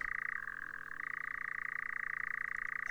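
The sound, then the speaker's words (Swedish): A European nightjar churrs in a continuous, rapid mechanical trill that barely changes over the whole stretch, steady, with no other voices or sounds breaking in. “Det är spinnerocksfågeln som var vanlig förut och nu är en väldigt stor raritet.”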